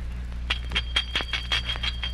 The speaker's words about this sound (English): Old Russian sleigh bells. Direct from Litvak.